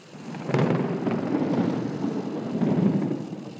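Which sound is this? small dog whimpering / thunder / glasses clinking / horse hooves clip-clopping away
thunder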